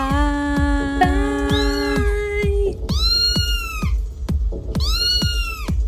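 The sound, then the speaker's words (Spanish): Voices imitating kitten meows for a kitten party with techno, several high, drawn-out mews overlapping one another, set over a steady thumping techno beat that pulses about twice a second. “Vamos a hacer unos sonidos de. Ay, de gatitos.”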